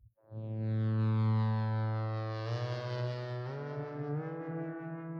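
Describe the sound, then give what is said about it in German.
A rich, buzzy software synthesizer, the Animoog Z app played with a finger on the virtual keyboard of an iPhone 12, holds a low sustained note, then steps up in pitch twice, its bright harmonics shimmering throughout. Played alone with no voices, fairly loud. “Die ist gar nicht alt, die haben sie jetzt modernisiert und ich wollte jetzt die neue Version, nämlich den Animog Z, den Animog Z cool. spielen.”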